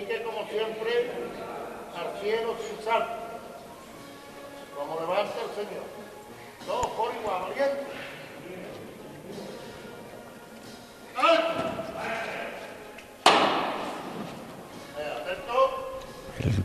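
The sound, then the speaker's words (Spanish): Men's voices call out inside a basilica, then a sharp metal knocker strikes a procession float once as it is about to leave through the door onto Calle Castilla, loud, its ring lingering under the continuing talk. “ahora mismo escuchamos el martillo.”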